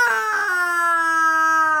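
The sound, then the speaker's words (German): A cartoonish dinosaur cry, exactly the same sound as that of a small funny sheep in a film, resembling a sheep's bleat: one sustained, nasal, wavering call lasting nearly two seconds, loud and alone, dipping slightly in pitch before cutting off. “Und ich habe so einen Dino gefunden. Der macht zufällig genau den gleichen Sound wie mein Schaf.”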